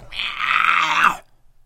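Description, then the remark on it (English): A person imitates a bull elk's scream as a call to a bull in thick cover: one loud, raspy, high-pitched cry held for about a second before cutting off abruptly, with no talking. “Raspy, high pitched scream.”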